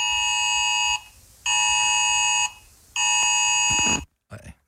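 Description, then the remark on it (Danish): A thin, buzzing electric tone sounds three times, each lasting about a second with short gaps between, like a feeble doorbell buzzer. It is fairly loud, followed by a brief rustle. “Det lyder som sådan en ringklok, der kun kører på oh, halvanden batteri.”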